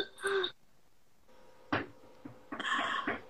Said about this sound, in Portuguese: Opa, temos, temos visita aqui. Tem gente batendo na porta. Deixa eu ver se para.